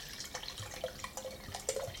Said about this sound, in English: This is it here. It's the Cali Rosé. So I'm going to pour myself a glass, grab your glass, and let's start.